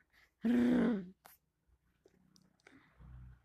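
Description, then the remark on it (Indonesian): A voice imitates a loud snore: one harsh, rattling burst lasting about half a second, forceful, followed by faint breathy rustles and quiet murmuring. “Kalaupun suara ngorok, orang macam apa yang ngoroknya kayak toa masjid.”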